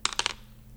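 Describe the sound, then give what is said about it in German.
Dice, including a 100-sided die, clatter across a hard table in a quick burst of four or five sharp clicks, fairly loud, as a winner is rolled from 39 entries, then settle into a quiet room tone with no one speaking. “Also, wir würfeln jetzt den Gewinner aus.”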